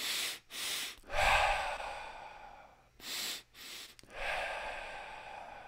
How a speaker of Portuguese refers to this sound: E aí fica em expirações lentas e longas, tá?